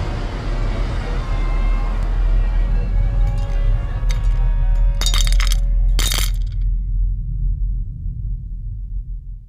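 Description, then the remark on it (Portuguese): Something falls and shatters: two sharp crashes a second apart, with bright ringing and clinking pieces, over a steady low rumble of city traffic. “Frase é interrompida com algo que cai e se espatifa.”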